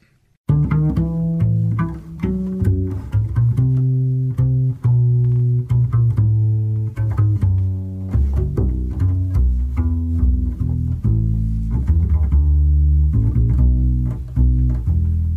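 An instrumental song intro plays loud, with full, steady chords over a deep bass line and clearly struck notes in a regular rhythm, and no voices.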